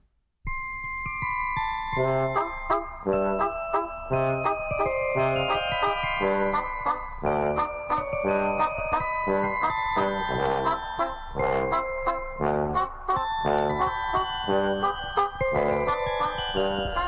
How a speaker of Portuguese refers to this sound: Aqui no Em Boa Companhia, vamos ouvir a canção que o Erli escolheu